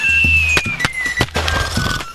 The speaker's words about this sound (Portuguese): Pera lá que eu vou sortar essas bombinhas peido de véia que sobraram do São João.